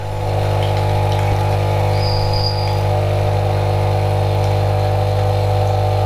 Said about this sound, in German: ihr hört die Kaffeemaschine wieder.